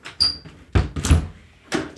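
A door is struggled with: a high squeak, then a couple of heavy thuds and rattling bangs, followed by another knock, fairly loud, with no talking.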